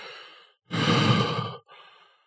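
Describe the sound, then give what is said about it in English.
A person imitates the heavy, labored breathing of a seven-foot-tall werewolf, breathing like a man with its chest heaving: a soft inhale, then a loud, rough, drawn-out exhale, followed by a quieter breath. No words are spoken. “like it was breathing.”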